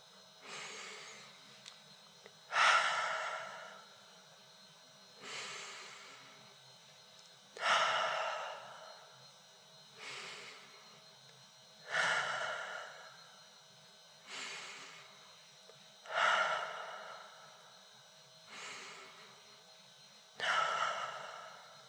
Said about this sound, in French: Inspirez en sentant l'air pénétrer nos narines, gardez l'air dans vos poumons. 3 secondes et soufflez par le nez en laissant redescendre votre cage thoracique. Faites une série de 5 inspirations et expirations.